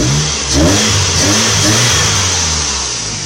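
A car engine revs loudly with the butterfly switch engaged, its pitch climbing and falling in quick surges over a deep rumble, with a strong breathy whoosh of intake noise throughout and no voices.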